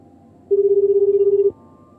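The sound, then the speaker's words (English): One ring of a telephone line heard through the earpiece after dialing with an alternative dialing machine: a steady, slightly warbling low tone lasting about a second, with quiet line hiss before and after. “It's making a ringing noise, but it could be faking us.”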